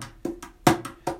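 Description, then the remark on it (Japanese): A mini cajon played in a quick 16-beat rhythm pattern: five dry slaps with a short boomy ring, the middle hit struck noticeably harder than the others, with no voices. “ミニカホンを叩いてみた”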